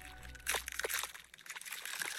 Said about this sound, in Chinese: 哎，这是什么声音？三颗鸭宝宝的蛋壳裂开了。